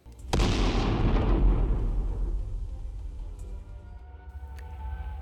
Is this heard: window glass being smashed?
no